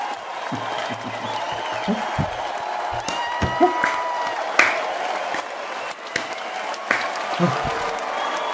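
A crowd applauds and cheers steadily for several seconds, a dense wash of clapping with occasional louder whoops and shouts rising out of it.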